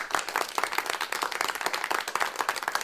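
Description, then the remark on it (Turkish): An audience applauds steadily, many hands clapping in a dense, rapid patter that holds at an even, moderately loud level for the whole stretch, with no voices standing out. “Ve bu alkışı da bu sözde hak ettiğimi düşünüyorum ama asıl alkışı sözümü tuttuğumda ve tutacağım eminim yani.”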